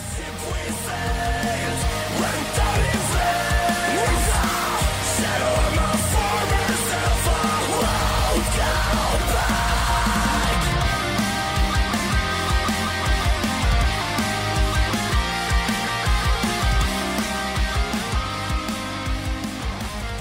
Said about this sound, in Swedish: det är ju metal. Lite svårt att säga just exakt vilken, men tänk lite mer västkust och Falkenberg. Melodierna är riktigt catchiga och skriken fungerar väldigt bra. Det jag gillar mest med låten är faktiskt tempot. Det går riktigt fort